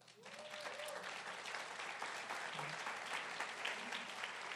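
An audience claps steadily for a volunteer bass player in a dense, sustained burst of applause lasting several seconds, with a faint voice briefly audible beneath the clapping.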